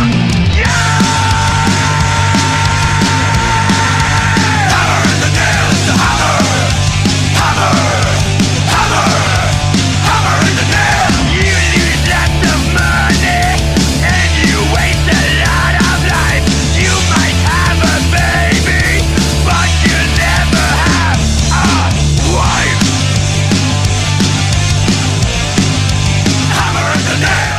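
Loud, polished hard rock that plays continuously, with a dense wall of distorted guitars over a driving, steadily shifting bass line, cleanly produced yet still rough-edged, in the vein of Motörhead.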